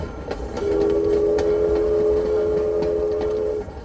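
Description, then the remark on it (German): A train rolls along as heard from inside a carriage: a steady low rumble with a sustained electric hum and scattered clicks and rattles over the track, with no one talking. “Hier im Zug bist du sicher bei mir sowieso.”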